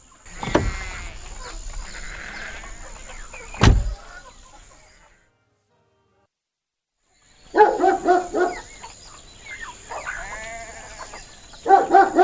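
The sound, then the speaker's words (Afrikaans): Sheep bleat repeatedly at the Tankwa Fontein farmstead in the second half, several wavering cries overlapping, after a stretch of thumps, a loud knock and a brief silence, with a steady high hiss throughout. “Hy's by die skaap daar aan die ander kant.”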